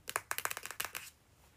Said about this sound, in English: Drumroll, please.